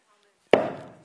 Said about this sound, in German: Und er nimmt diesen Hammer und er lässt ihn niedersausen und sagt, gerecht,